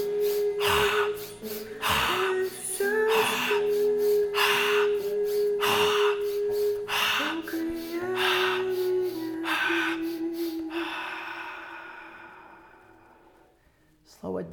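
Rapid, forceful breaths of a breathing exercise repeat in a steady rhythm, each inhale and exhale loud, over a sustained background drone, then taper off and fade near the end.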